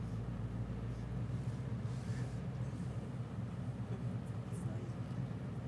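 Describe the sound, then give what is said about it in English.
A steady, heavy low-end rumble drones on without pause from a truck vibrating outside, with faint background hiss and no clear speech. “Is that music? It's a truck vibrating.”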